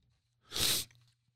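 A single sharp sneeze bursts out, a loud breathy blast lasting under half a second, then quiet with a faint low hum underneath.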